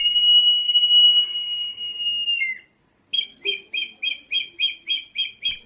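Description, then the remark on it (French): Terracotta pots of different shapes, partly filled with water, whistle like birdsong as a man moves them and the moving water makes a modulated whistle: a long, steady warbling whistle held for a couple of seconds, a brief pause, then a quick run of about nine bright, evenly spaced chirps. “des pots de différentes formes, plus ou moins remplis d'eau, et quand le gars bouge le pot, le mouvement de l'eau produit ce sifflement modulé”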